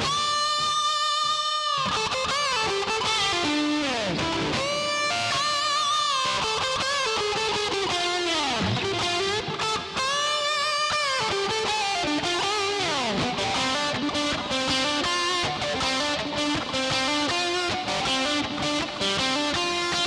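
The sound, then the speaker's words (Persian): A solo electric guitar line with a gritty, distorted tone plays alone, holding sustained notes with frequent bends and sliding pitch swoops, loud and steady throughout with no voices. “و در نهایت لاین گیتار الکتریک”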